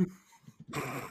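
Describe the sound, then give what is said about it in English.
A dog gives a few low, grumbling huffs, then breaks into a sudden, louder, harsh bark-like outburst that lasts about half a second before cutting off. No one speaks. “There we go. That's the dog.”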